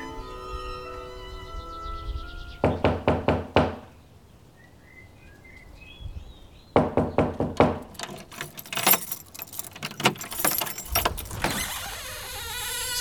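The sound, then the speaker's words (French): Two separate bursts of about five quick, firm knocks on a wooden door, with a pause between them, followed by clattering, shuffling movement as if the door is being handled. No one speaks. “Ils hésitèrent un instant, puis se décidèrent à frapper à la porte.”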